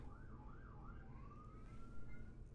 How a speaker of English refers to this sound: Oh, what a coincidence. Sirens going off in the background.